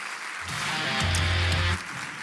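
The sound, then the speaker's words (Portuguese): A church audience claps steadily throughout, applauding the name of Jesus, a dense, continuous wash of applause that swells briefly, with a low booming tone from a sound system rumbling underneath partway through. “Vamos aplaudir bem forte o nome de Jesus.”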